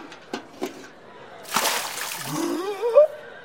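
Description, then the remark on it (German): A sudden, loud splash of cold water thrown onto a man who has fainted bursts in after a few faint knocks, washing out over a second before his sputtering, gasping voice rises at the end. “Nein, mal kaltes Wasser.”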